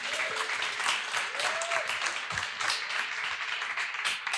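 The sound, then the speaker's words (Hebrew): Steady applause from an audience, many hands clapping in a dense, continuous patter that holds at an even loudness throughout, with a faint whistle-like tone briefly rising above it. “ומגיע להם ממש כפיים על הדרך שהם עושים, ממש.”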